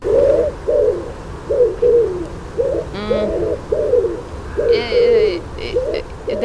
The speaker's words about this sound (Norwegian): er en due av et eller annet slag? Ja, det er ringdue.